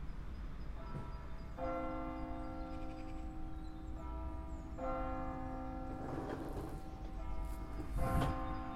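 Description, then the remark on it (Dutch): Church bells toll twelve times at midday in slow, separate strikes, each leaving a long, humming ring that overlaps the next, over a steady low outdoor rumble. “de kerkklokken luiden.”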